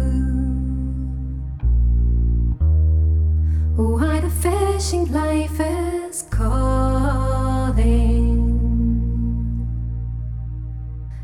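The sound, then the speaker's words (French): A folk song performed by a trio, sung over classical harp accompaniment, with a clear solo voice carrying a flowing melody above steady, resonant low notes, loud throughout. “on s'étonne justement que c'est une harpe classique qu'il a entre les mains.”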